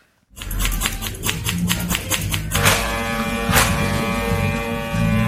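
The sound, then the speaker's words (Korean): Electric hair clippers in a hair salon buzz steadily with a low motor hum as they cut hair, broken by short bursts of snipping or combing strokes, the buzzing continuous throughout with no talking. “미용실에서 보내주신 소리가 도착해 어. 있습니다.”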